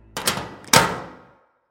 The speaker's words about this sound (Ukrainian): Двері тут вже різко захлопнулись.